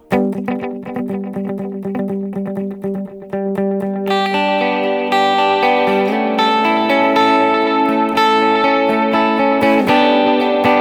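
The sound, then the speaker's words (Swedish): An electric guitar played through a modulated stereo delay, two separate delay times running in parallel and split left and right with the mix level raised. Quick repeated picked notes echo into each other, swelling into a louder, denser shimmering wash partway through. No one speaks. “Och ni hör att det är tydlig modulation.”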